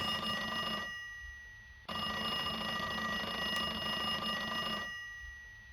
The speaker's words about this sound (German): Telefon. Oh, da geht's los.